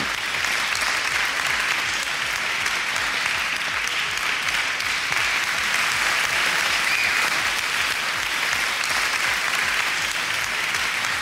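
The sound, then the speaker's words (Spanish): Sustained applause from an audience, a dense, steady wash of many hands clapping at an even loudness for the full length, with no voices standing out. “Todos los aplausos juntos que han faltado en otros programas.”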